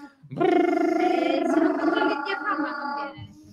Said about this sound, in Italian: Fate vibrare le labbra.